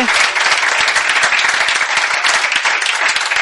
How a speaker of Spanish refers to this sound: Ojo porque los concursantes han salvado la fase más difícil del programa sin utilizar los comodines y eso es digno de elogio para los dos. Se merecen desde luego ese aplauso.